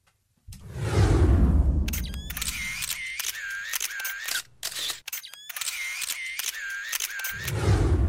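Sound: camera shutter clicks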